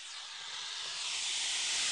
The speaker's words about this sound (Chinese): 一张狰狞大口张开，猩红的蛇信吞吐，发出丝丝的低鸣。